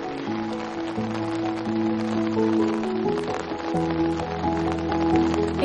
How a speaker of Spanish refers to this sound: Está poniendo a llover de nuevo ¿eh? y no traje paraguas.